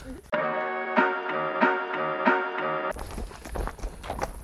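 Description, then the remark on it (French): Slow, regular hoofbeats from horses being led back to their pasture after a ride, a steady clip-clop at an unhurried pace over a sustained humming tone, then scuffing steps and outdoor noise as the sound turns rougher. “On ramène les chevaux dans leur pâture.”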